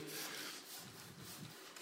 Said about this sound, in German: Und stellt euch vor, ich muss jetzt hier diesen Baumstamm äh, klein machen. Das ist jetzt mein Auftrag. Und da kann ich sägen